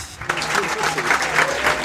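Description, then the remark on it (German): Steady crowd applause at the 32nd Chaos Communication Congress in Hamburg, a dense wash of many hands clapping that starts abruptly and keeps going at an even, fairly loud level, with a faint murmur of voices mixed in. “Der Applaus ist natürlich für uns.”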